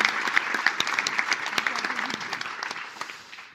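An audience claps steadily, dense overlapping handclaps forming a continuous wash that gradually thins and softens toward the end.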